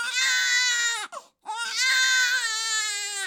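A baby lying in a pram (Kinderwagen) being pushed on a walk wails loudly in two long, strained cries with a brief gasping break between them, the high pitch steady and harsh throughout.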